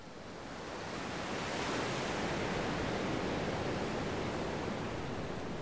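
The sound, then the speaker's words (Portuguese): Steady, full-bodied rush of ocean surf breaking on a beach, swelling up over the first second or so and then holding as a continuous wash of waves. No voices. “E à praia.”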